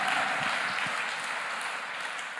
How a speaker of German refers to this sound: Danke für all diese wunderbaren Angebote. Vielleicht können wir da mal einen Applaus geben.